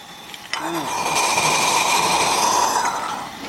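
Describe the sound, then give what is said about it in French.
Beer fermenting in a tank, with strong fermentation activity and a high level of CO2, recorded with the microphone moved closer. A dense, continuous bubbling and fizzing hiss starts abruptly after a brief quiet moment and stays loud and steady to the end. “Effectivement, ça bulle. Ça bulle à fond.”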